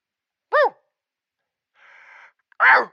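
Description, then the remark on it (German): A person imitates a rutting stag's call: a short falling yelp, then a noisy drawn breath, then a louder, rough, bellowing cry, with no other talk. “Naja, dann würde ich sagen, zeigen Sie unseren Hörern doch mal, wie der Hirsch macht.”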